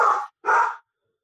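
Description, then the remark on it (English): A dog barks twice in quick succession, two loud woofs separated by a brief gap, followed by silence. No one speaks. “I'm going to let my dog fill the pause.”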